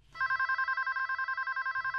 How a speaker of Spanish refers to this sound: Pero en la mañana del 5 de diciembre de 1979, sonó el teléfono